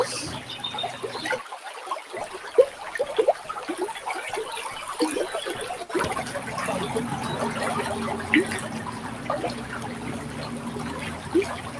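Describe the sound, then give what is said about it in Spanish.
Outdoor woodland ambience with trickling water and scattered bird chirps, a steady soft wash of natural sound that grows slightly fuller partway through, with no one speaking. “los sonidos del bosque que nos sigan acompañando irán reduciendo lentamente su intensidad.”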